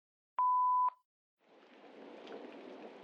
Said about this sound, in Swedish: Välkommen till redaktionen för Petele Podd. Vi kan tyvärr inte svara just nu, men vänligen lämna ett meddelande efter tonen.